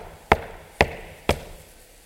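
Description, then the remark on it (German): Three evenly spaced knocks on the front door of a house, each a sharp, solid rap about half a second apart, fairly loud, with no voices. “Und eines Tages war die Zeit gekommen, da klopfte er.”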